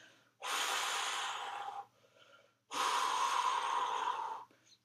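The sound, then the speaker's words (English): A person imitates a man's heavy, angry breathing: two long, loud, forceful breaths, each rushing out for over a second with a short quiet pause between. “he just fucking sat there and stared at her. And he was like, like just the look on his face, and he's just breathing like,”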